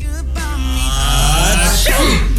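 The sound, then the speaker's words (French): A loud, theatrical fake sneeze from a voice, drawn out and exaggerated, then breaking into laughter within a couple of seconds, done on instruction to sneeze and then laugh straight away. “Ah, c'était excellent parce qu'il nous disait qu'on devait éternuer.”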